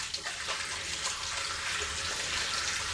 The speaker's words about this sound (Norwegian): Dette her, folkens, er faktisk eh, lyden av rennende vann og hender som vasker seg med såpe. For dere, det er sånn at to så enkle ting som vann og såpe er noe av det koronaviruset liker minst.